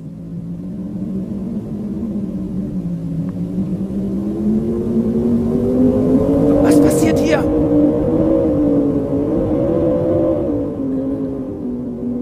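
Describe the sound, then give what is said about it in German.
A loud, steady roar of storm wind that swells and wavers in pitch for the whole stretch, with a voice briefly speaking over it. “Wind, genau, ein Brausen, wie ein Sturm war plötzlich zu hören.”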